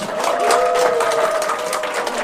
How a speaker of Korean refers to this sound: 뜨거운 박수 부탁드립니다.